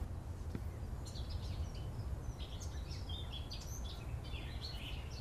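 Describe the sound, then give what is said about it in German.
A Eurasian blackcap sings, its faint, rapid warbling phrases recurring throughout over a steady low outdoor rumble, with no one speaking. “Im Hintergrund singt eine Mönchsgrasmücke.”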